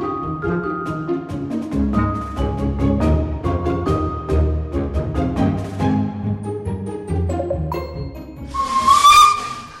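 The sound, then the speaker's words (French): A steam train of the train du Babéry in the Indre department lets out a loud, brief hiss of steam mixed with a shrill whistle near the end, following a stretch of steady tonal music with rhythmic plucked notes. “Et si euh, vous visitiez le département de l'Indre en train à vapeur, euh, c'est possible grâce au train du Babéry.”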